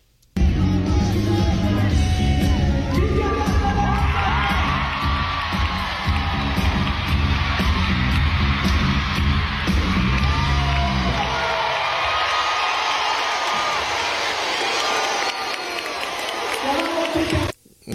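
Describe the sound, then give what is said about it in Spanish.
A concert crowd of thousands roars with sustained cheering and high-pitched screams as a singer on stage takes off his jacket, loud and continuous for most of the stretch, with deep rumbling music or stage sound underneath before it cuts off. “pues le aplaudieron, ¿eh? Y gritaban así, ¡ah!”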